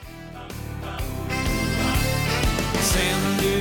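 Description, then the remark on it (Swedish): A dansband-style cover song plays loudly and steadily, with a bouncy bass line, bright keyboards and a regular danceable beat. No one talks over it. “De gör ju om låtar till dansbandslåtar. Mm. Den här tycker jag faktiskt var skitrolig. Den heter … och låter så här.”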